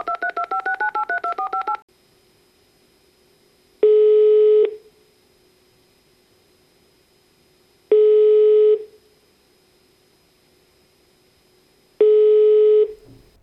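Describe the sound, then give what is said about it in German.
A telephone number is dialed in a rapid burst of about a dozen dual-tone keypad beeps, followed by a steady ringback tone sounding in three long pulses separated by silence. “Ich wähle den jetzt.”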